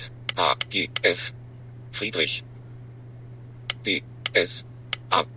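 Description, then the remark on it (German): A synthetic screen-reader voice spells out single letters as a finger rests on the keys of an on-screen touchscreen keyboard, in quick clusters, each followed by a soft click, with brief pauses between groups over a steady low electrical hum. “Einfach den Finger auf der Bildschirmtastatur drauflassen. Er buchstabiert das dann also immer.”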